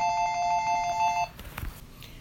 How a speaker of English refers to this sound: And at that moment, someone's phone rings. Everybody's thinking, really? Really? This sacred moment? Really?